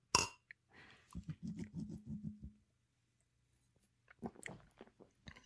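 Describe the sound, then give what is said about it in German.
Someone sips a very fizzy beer during a beer tasting and swallows in a quick run of low, rhythmic gulps lasting over a second, preceded by a short bright burst and followed by a few wet mouth and breath sounds. “Und jetzt trinken wir erstmal. Prost.”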